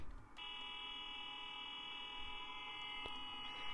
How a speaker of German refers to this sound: Auf jeden Fall klingt die Hupe eigentlich so.